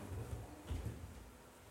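A chair is shifted into place with a short, low scraping bump, then a second softer knock. The sounds are quiet, with no talking.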